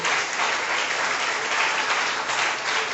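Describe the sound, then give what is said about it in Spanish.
Steady applause from a crowd fills the whole stretch, a dense, even wash of many hands clapping at constant loudness with no voices on top. “Si usted va a aplaudir, aplaudo si no, quédese tranquilo.”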